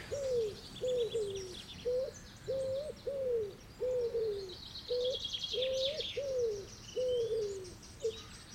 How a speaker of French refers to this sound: quand il y a des tourterelles, qui, viennent dessus ou des pigeons qui viennent dessus, ben, je pense à ça.